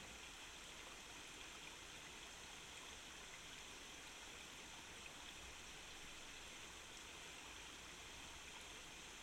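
A steady stream flows continuously, its broad rushing and babbling water noise constant and even throughout, alone with no voices.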